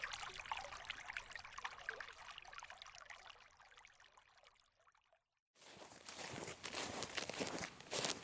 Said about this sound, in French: Des troncs sont creusés dans le sens de la longueur et forment des petits bassins dans lesquels l'eau s'écoule en cascade.